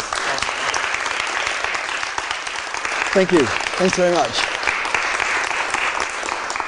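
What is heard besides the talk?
audience applause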